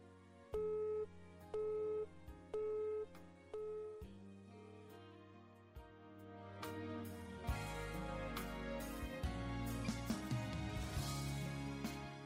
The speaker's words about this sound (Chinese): 您好，您拨打的电话正在通话中，请稍后再拨。 The number you have dialed is busy. Please try again later.